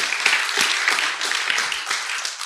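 Audience applause: a dense, steady wash of many hands clapping together, with sharper individual claps popping out irregularly, sustained at an even loudness throughout.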